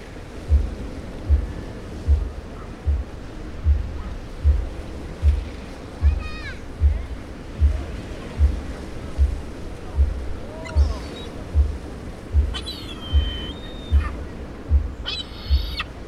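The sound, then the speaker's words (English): Seaside town ambience in Herne Bay: a steady broad wash like surf on the shore, with a regular low thudding underneath and a few bird calls, including a cluster of cries near the end. “We took a week's holiday in Herne Bay, and I recorded some ambience for an earlier podcast episode.”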